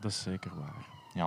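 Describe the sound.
A police siren wails as a thin, steady tone in the background, running beneath people talking outdoors in the foreground for the whole short moment.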